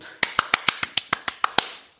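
A quick burst of about ten sharp hand claps in a steady, fast rhythm, crisp and fairly loud, with no one talking, then fading into quiet.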